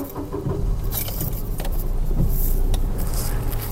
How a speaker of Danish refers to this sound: Okay, jeg skal lige have sele på. Nå, så starter vi karetten.